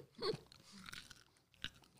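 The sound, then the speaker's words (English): Two crisp, wet crunches of biting into a pickle, the first louder and followed by chewing, the second sharp and brief; no talking. “That's a solid pickle.”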